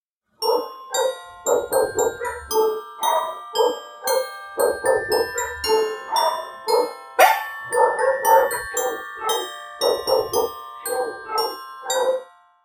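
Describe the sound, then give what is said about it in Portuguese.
Several pet dogs bark together in a dense, overlapping chorus, nearly nonstop for about twelve seconds, loud, with a few ringing tones lingering underneath and no one speaking. “Uma pequena pausa nesse programa, porque meus cachorros latindo interromperam a gravação com um coral de cachorros.”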